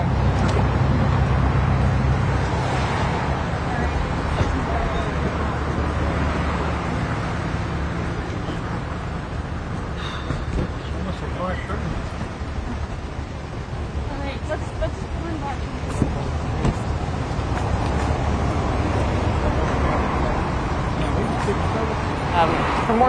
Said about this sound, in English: Like we, we decide to go there and then they hop in a car and they drive away.